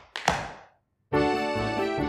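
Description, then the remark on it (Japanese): Two quick tap-dance steps land as a sharp thump and a clack that ring out briefly, followed by a short silence and then a loud, sustained musical chord. “わかる最近ピエロにタップダンス教わってんだよ。”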